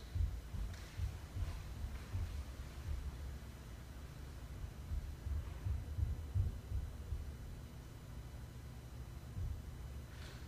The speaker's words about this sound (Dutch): Wel blijft hij nog steeds de voetstappen horen. Hij blijft vervolgens filmen en maakt de volgende geluidsopname van de voetstappen.